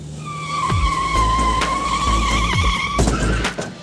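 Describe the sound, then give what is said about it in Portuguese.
A long, high-pitched screech of car tires skidding across pavement lasts about three seconds, loud, with engine rumble beneath and a few sharp knocks, ending in an abrupt jolt, as a fleeing driver crashes into a parked car and then a pole. “Ele passava de uma pista a outra, não parava no sinal vermelho, parecia que não estava vendo ou pouco se importando com os carros que estavam estacionados, até que bateu em um desses carros e depois num poste.”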